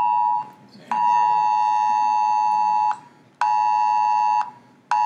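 A loud, harsh phone emergency alert tone blares in long sustained pulses of about two seconds each, separated by brief gaps, piercing with no voices.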